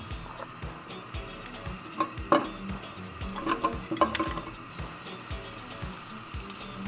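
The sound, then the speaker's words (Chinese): Frozen seafood (scallops and shrimp), fried straight from frozen to brown the surface, sizzles in a frying pan with a steady, crackling hiss, broken by a few light metallic clinks and scrapes of a utensil stirring against the pan. “先煎海鲜嘛，哦， 对， 冷冻直接煎就 OK 了嘛。”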